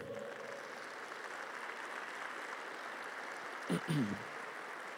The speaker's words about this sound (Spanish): Dale un fuerte aplauso al Rey.